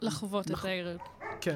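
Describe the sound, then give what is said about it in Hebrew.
Dogs Aliyah and Tango bark in the background in a studio, short yapping barks mixed under a person talking in the foreground, the voice dominating the brief moment. “אני לא יודע אם שומעים אה, ברקע את עלייה ואת טנגו הכלבים הנהדרים”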